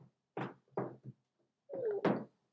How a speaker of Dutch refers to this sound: krapt ondertussen hier aan de stoel achter mij. Excuseer.